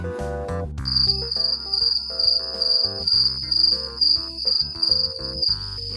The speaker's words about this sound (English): I, I really need there to be a cricket sound.